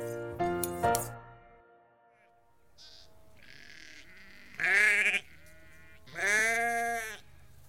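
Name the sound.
sheep bleating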